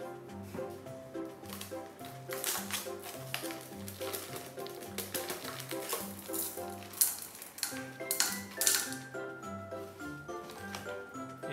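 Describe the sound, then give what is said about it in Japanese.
Small hard pieces of pine resin, large and small, rattle and clink as a box of them is opened and handled, with a few louder clattering bursts over steady background music. “箱を開けるとですねこんな風に、えー、入っています大小いろいろ入っています”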